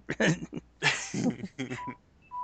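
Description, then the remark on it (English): A phone's low-battery warning sounds near the end as the phone is about to die: a couple of short, thin electronic beeps, fairly faint, following bursts of laughter and voices. “phone is about to die there.”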